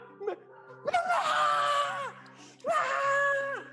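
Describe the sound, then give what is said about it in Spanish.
A person imitates loud screaming, letting out two long, strained vocal screams in a row, the first lasting over a second and the second shorter, with a brief vocal sound before them. “y empieza a gritar súper fuerte.”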